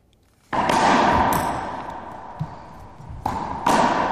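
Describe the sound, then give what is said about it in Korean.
A squash ball smacks hard against a court wall, its crack ringing out in a long echoing decay, followed a few seconds later by two more quick, sharp hits. “스쿼시, 스쿼시 하는, 네, 스쿼시 벽에 때리는 소리입니다. 공을.”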